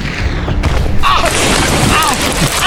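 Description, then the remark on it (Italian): A sharp gunshot bursts a giant water balloon full of dung, followed by a loud, sustained wet splatter and sloshing, with voices shouting over the mess. “era un gavettone di merda gigante, era un gavettone di merda gigante, basta pezzi di merda!”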